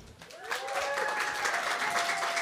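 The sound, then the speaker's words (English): A live audience bursts into applause to welcome a guest, a dense wash of clapping that swells within the first half second and stays loud and steady to the end, with a faint cheer or whistle threading through. “Give a big applause”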